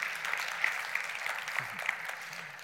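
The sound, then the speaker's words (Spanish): An audience applauds during a sermon, a dense wash of many hands clapping at once with no pauses, holding an even moderate loudness throughout. “A ver, un aplauso a todos aquellos que la están esperando y la están creyendo.”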